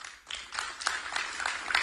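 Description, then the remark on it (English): Light, scattered applause for Nikki Haley: a soft patter of overlapping hand claps at a steady, modest level for a couple of seconds, with no voices over it. “Some light applause.”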